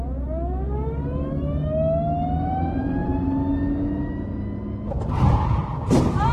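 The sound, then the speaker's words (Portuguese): A car engine whines higher and higher as it speeds up, then two heavy thuds strike near the end as the car hits a pedestrian. No one speaks. “Eu atropelei alguém!”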